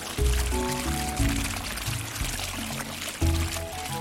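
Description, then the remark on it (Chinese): Water runs steadily from a bathtub faucet, a continuous loud gushing pour lasting several seconds, with some pitched, shifting tones layered underneath. “小资帮他把水龙头打开，”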